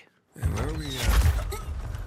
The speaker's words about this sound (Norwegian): Vi åpner opp døra